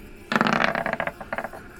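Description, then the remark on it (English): Dice clatter and tumble across a hard tabletop, rolling an 18, a burst of rapid clicks that bounce and slow to a few final taps, fairly loud with no talking. “18 on the dice.”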